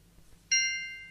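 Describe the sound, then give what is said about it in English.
A single bright bell ding, used as a cue in a word memory game, strikes sharply and rings on with a clear, sustained tone, slowly fading over a low background hum. “From now on, just say the next word when you hear the bell.”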